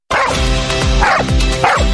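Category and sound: animal, dog barking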